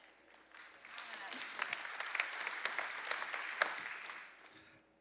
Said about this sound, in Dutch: vind het toch wel een mager applaus. om wat hij doet.